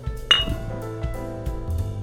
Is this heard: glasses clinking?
yes